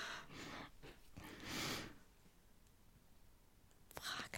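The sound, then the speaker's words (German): Soft, airy breaths pushed into a microphone, a few noisy exhales with a louder rush in the middle and another at the end, with quiet hiss in between. “Wer atmet denn jetzt hier so?”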